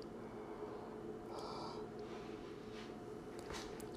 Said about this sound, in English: Ooh, have had a little yawn.